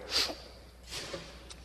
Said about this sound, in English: Bless you.